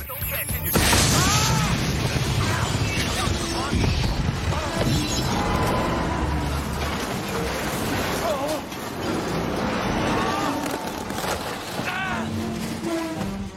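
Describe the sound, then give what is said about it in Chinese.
An excavator of a demolition crew that demolished the wrong house crashes through the window of a home, a loud, sustained roar of smashing glass and tumbling debris lasting over ten seconds, with rumbling booms and what may be voices shouting underneath. “任何一个正常的碳基生物都想不到，人在家中坐，挖掘机窗外来。”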